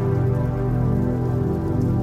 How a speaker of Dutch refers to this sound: Wanneer de regendruppel zijn bestemming heeft bereikt, komt het op de buitenste rand van het raam terecht en komt het samen in een klein, verzameld regenpadje.